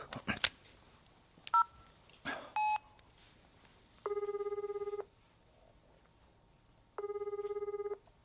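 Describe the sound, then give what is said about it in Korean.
A few clicks and short dialing beeps, then two steady electronic ringing tones, each about a second long with a pause between them, like a phone ringing on the line. “연락이 올 때가 됐는데 아, 내가 해볼까?”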